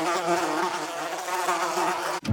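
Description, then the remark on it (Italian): A fly buzzes steadily, a continuous droning whine with a wavering pitch that holds for about two seconds before cutting off abruptly. “un ribrezzo ancestrale che ancora oggi mi costringe a rabbrividire ogni qualvolta io venga a contatto anche solo con una mosca.”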